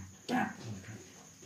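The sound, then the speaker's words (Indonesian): A voice imitates a cat's fart: one quick, squeaky burst of breathy sound, fairly loud, over in a fraction of a second, followed by faint background murmur. “eh kentutnya suaranya bukan kayak manusia gitu hmm. suara kentut kucing hmm.”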